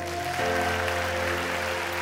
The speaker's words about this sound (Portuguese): Vamos abençoar Jesus com um aplauso, vamos ficar em pé?